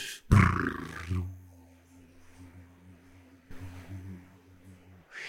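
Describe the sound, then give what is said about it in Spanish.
A voice imitates the low rumble of Chinese printing press rollers, a loud throaty burst followed by a steady droning hum that swells again near the end. “Como los libros que ellos querían imprimir no decían nada, los rodillos de la imprenta que hacía este ruido.”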